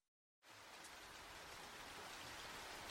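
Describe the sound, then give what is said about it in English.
After a brief silence, steady rain begins, a dense, even hiss of drops pattering on a small car parked at night in a deserted square at an abbey car park. It continues unbroken, with no voices. “A small, uncomfortable car parked at night in a deserted square in the rain, with frogs croaking.”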